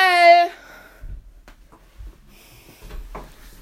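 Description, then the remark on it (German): A door creaks open with a brief high-pitched hinge squeal, followed by several soft, dull thumps and small knocks of handling. “Du kannst ruhig die Tür zu, äh, offen lassen.”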